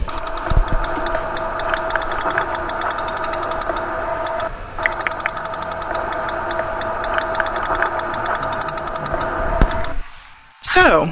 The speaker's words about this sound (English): since the article mentioned the Lake Champlain uh, echolocation, I thought you all might like to hear what it sounds like